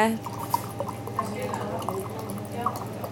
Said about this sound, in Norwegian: Hedvig skjenker vann i glassene